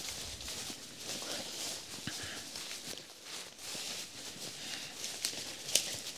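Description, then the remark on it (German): Footsteps crunch and crack over dry wood and twigs in undergrowth off a patrol road, a steady walking rhythm of sharp snaps, with a soft rustling hiss in the background and no talking. “Und wir merken schnell, das Holz auf dem Boden knackt tatsächlich bei fast jedem Schritt.”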